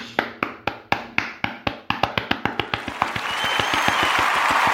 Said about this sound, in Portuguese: Quer saber? Não vou só agradecer Vou bater palmas.